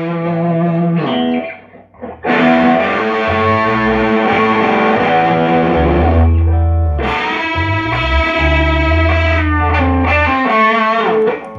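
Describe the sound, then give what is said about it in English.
A bass guitar played through a Tone Bender fuzz pedal, loud and heavily saturated, with thick sustained low notes and buzzy overtones, a brief pause near the start, then continuous riffing with no talking. “Yeah, uh, so that's the that's what you say is the tone bender tone.”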